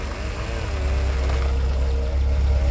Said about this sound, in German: Auf der Straße draußen hielt ein Auto der Gendarmerie an.